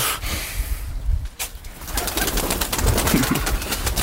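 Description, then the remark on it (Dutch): A flock of chickens in an old-fashioned fruit shed fills it with a steady, dense murmur of clucks and soft low calls as people walk through among them, a few sharper notes and scratchy clicks poking through. No one speaks. “Nee, we gaan hier eh, tussen de kippen weer naar, naar, naar achter.”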